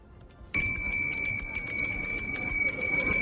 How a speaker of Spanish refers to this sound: Este es el sonido de la campana de los helados aquí en la Plaza de Bolívar.